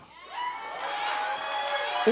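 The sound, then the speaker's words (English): An audience erupts in shouting and cheering, a dense wash of many raised voices that swells quickly and holds steady at a fairly loud level for a couple of seconds. “See, y'all shouted too much earlier. Y'all don't even hear what I'm saying.”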